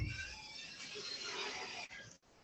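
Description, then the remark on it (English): A squeaky door hinge creaks in one long, drawn-out groan lasting about two seconds, with raspy, ratcheting squeals up high, then stops abruptly. It sounds fairly loud, with no one talking. “man, we really need to DW40 that door.”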